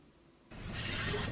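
Wheels of a private-railway train screech and grind against the rails, a loud, harsh, hissing metallic scrape that swells in after a moment of near silence and keeps rushing steadily, heard from a distance with no voices.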